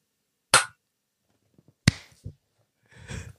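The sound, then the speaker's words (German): Two people clapping blind, with eyes closed: two sharp, separate hand claps about a second and a half apart, each loud and crisp, followed by a few faint soft taps and a brief rustling burst at the end. “also wir müssen zuerst klatschen. Blind klatschen ist...”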